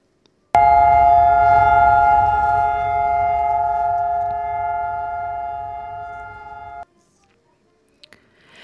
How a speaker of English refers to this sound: That was the siren that sounds on this day every year in Israel as the nation stops for two minutes for Yom HaShoah or Holocaust Remembrance Day.